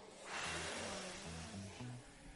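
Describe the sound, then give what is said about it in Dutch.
A group of voices imitates a storm at the word "storm" in a song, with a loud, sustained whooshing roar like howling wind. Low hooting tones rise and fall underneath, filling a couple of seconds. “Als we bij het woordje storm komen, dan zeggen we niet storm, maar dan doen we de storm na.”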